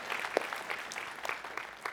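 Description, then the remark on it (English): A small crowd applauds the announcement of about $3.69 million committed or pledged to an initiative, with many overlapping hand claps forming a steady, moderately loud patter that continues throughout, and no one speaks over it. “And yeah, we, we can clap for that.”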